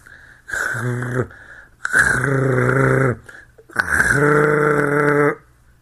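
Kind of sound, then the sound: vocal imitation, voice imitating loud snoring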